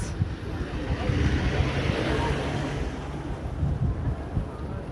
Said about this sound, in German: Hier fahren noch Materialwagen durch. Ein Wagen vom Roten Kreuz.